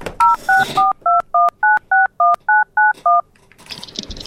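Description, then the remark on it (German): A telephone keypad dials a number: eleven crisp, loud touch-tone beeps in a quick, steady rhythm, followed by a short burst of hissy noise. “Hörer abnehmen, Freizeichen abwarten”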